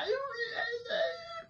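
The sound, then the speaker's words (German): A voice imitates a silly, nasty war cry: a warbling, whiny howl that rises and falls in pitch for about a second and a half, fairly loud, with no other sounds. “Einen ganz albernen, widerlichen Kriegsschrei.”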